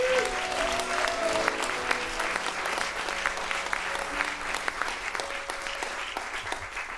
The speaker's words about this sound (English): Please give him one more round of applause.